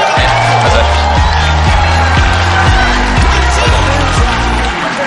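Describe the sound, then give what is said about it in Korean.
A crowd applauds and cheers steadily, dense clapping mixed with whoops and shouts, loud and sustained throughout, with a rhythmic low thumping underneath. “뭐, 박수, 왜, 이 사람이 나오면 멈춰야 된다, 이렇게 생각이 드시는 모양이죠.”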